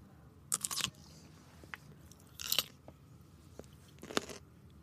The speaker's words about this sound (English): And it's the sound of the pickle. It's not the sound of your mouth. Yeah. That is key.